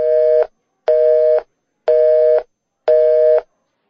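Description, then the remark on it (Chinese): A phone's busy tone after hanging up: four steady, evenly spaced beeps, each about half a second long with equal pauses between, loud, clear and alone with no talking. “明天打电话再说啊。先挂了啊，好，拜拜。”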